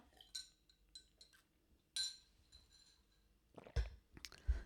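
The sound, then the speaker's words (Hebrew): Several light glass clinks ring out, followed by louder handling thumps and soft wet sipping sounds as people in a radio studio each take a sip of their own water; no one speaks. “בואו ניקח לגימת מים, לא ליד המיקרופון, כל אחד ישתה מהמים שלו.”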